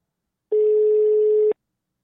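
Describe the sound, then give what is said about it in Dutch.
A single ring of an outgoing phone call: one steady, one-second electronic tone, fairly loud, starting and ending with soft clicks, with silence before and after. “En eh, we gaan hem nu bellen.”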